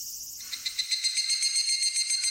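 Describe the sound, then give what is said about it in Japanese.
A high, shimmering insect call pulses in rapid repeated trills, steady and fairly loud, with no voices present: an evening cicada (higurashi) calling its 'kana-kana' call. “日暮か。珍しいな。日暮ってかなかな泣いてるのが日暮だよ。”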